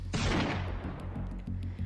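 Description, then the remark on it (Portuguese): A single loud gunshot, fired in the woods, cracks out sharply and rolls into a long, rumbling echo that slowly fades, with a couple of faint low thumps afterward and no voices. “Deu um tiro na nuca dele.”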